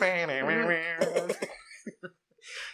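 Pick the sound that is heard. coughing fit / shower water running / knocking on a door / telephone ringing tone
coughing fit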